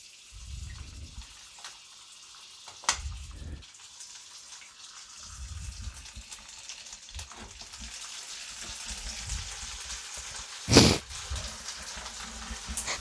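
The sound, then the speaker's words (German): Steady sizzling hiss with soft bubbling beneath it, fairly quiet, broken by a few sharp pops and one louder crackle near the end, as caramel sauce cooks; no voices. “Spritzt eigentlich gar nicht so. Ja, warte mal ab. Die muss ich ja auch erstmal auflösen. Oh, jetzt fängt's an.”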